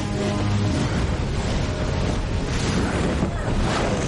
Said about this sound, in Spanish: Caen en un río. Sacan la cabeza a la superficie.